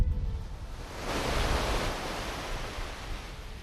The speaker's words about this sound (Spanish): Pocas horas quedan, eso sí, para que se nos vaya esta primavera express que hemos tenido y que os regalo a que disfrutéis unos segundos con este sonido del agua.